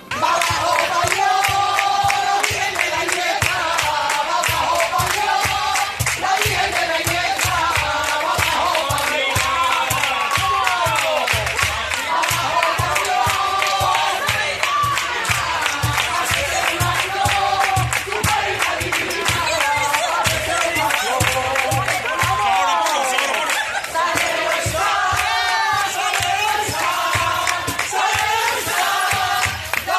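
A street crowd on Calle San Luis, near Santa Marina, sings sevillanas together during a rehearsal of the paso of the Cristo de la Humildad y Paciencia of the Hermandad de la Sagrada Cena. Many voices rise and fall in a loud, continuous chorus with rhythmic clapping and general crowd noise underneath for the whole stretch.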